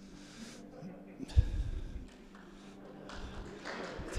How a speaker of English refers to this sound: Because uh, that joke was way better than the one clap that just got given then.